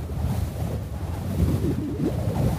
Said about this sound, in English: Roofs in Arizona take a beating. The sun cooks them. The wind pulls at them.